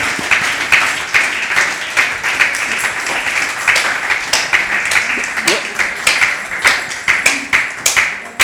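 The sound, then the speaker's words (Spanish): An audience applauds for several seconds, a dense patter of many hands clapping with sharper individual claps standing out, steady in loudness throughout. “Mire, denle un aplauso porque este, pues está fuerte.”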